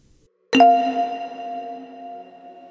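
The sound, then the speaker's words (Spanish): A single bright WhatsApp message notification chime on a wife's phone, one clear ding that strikes suddenly after a moment of silence and rings out slowly, fading over about two seconds. “llega una notificación de mensaje de WhatsApp al teléfono de mi esposa.”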